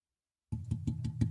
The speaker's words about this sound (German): Klopf nochmal drauf.